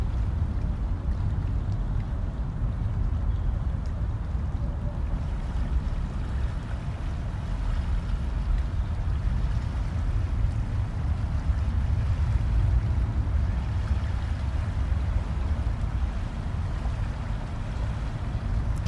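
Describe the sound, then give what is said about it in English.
Waves lap and tumble toward shore in a steady, continuous wash of water, with a deep low rumble underneath and no voices. “You see them lapping and tumbling towards you.”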